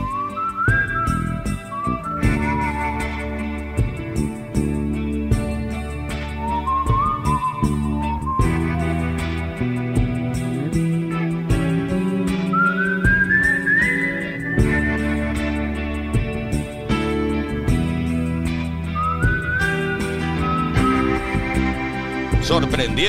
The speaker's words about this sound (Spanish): También hay silbido en el clásico